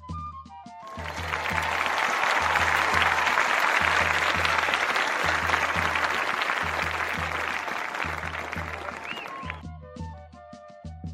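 Sustained applause from the Ressaca audience welcoming a guest cordel poet from Fortaleza, Ceará, swells and holds for several seconds over a steady musical bed with a pulsing bass beat, then fades as the music continues alone.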